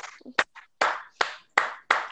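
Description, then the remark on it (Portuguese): A few sharp hand claps, about five, in a slightly uneven rhythm, each with a brief ringing tail, preceded by some softer rustling taps. No one speaks. “Eu tô adorando quem tá aplaudindo.”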